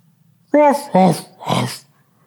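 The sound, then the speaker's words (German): A celebrity's voice imitates a dog barking with three short, gruff woofs, the first two close together and the third after a brief pause, fairly loud with no other sounds. “Boah, aber wer der Prominente ist, der einen Hund imitiert,”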